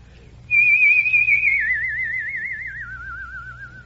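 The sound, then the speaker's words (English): A single sustained human whistle tone by a man starts abruptly and holds a steady pitch, then wavers with vibrato as it slowly glides downward, loud over a faint low hum, with no talking. “no, I, I really was washing dishes, and uh, all of a sudden I discovered that I could make a whistle tone.”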